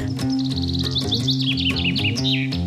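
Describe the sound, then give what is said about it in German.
A common chaffinch sings a bright, rapid series of descending chirping notes that speed into a trill, heard clearly over a steady, humming musical background. “Es ist der Buchfink.”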